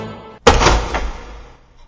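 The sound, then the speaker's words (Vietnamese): A chair is shoved abruptly, a loud sudden thunk followed by a rough scraping drag that fades out over about a second, with no voices. “Thầy Bính bèn xô ghế một cái rột”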